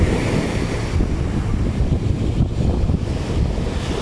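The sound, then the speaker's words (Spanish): Steady roar of turquoise ocean surf breaking on a clean sandy beach on a sunny day, with pelicans and seagulls around, a continuous wash of waves with some wind buffeting the microphone, fairly loud, no voices. “No hay tanta gente, estoy rodeada de gaviotas, de arena, de sol y de este hermoso mar.”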